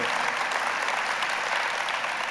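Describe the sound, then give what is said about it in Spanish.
A large church audience claps steadily and continuously after worship, a dense, even wash of applause for a couple of seconds with no voices standing out. “un aplauso a … por ese trabajo que hace con nosotros”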